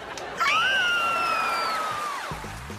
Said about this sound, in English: Oh. I'm so excited. I could scream. Want to do it with me? Guys, ready?